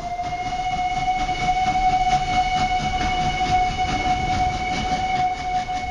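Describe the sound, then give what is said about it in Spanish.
A train rumbles past with a steady, sustained horn blast holding one pitch throughout, over loud continuous low rumbling and clatter of the cars. “Podrás ver a los comerciantes y el bello colorido de los vestidos de las etnias mexicanas, los vagones llenos de reses y aves de corral, y luego a todos ellos alejarse en el tren fantasma.”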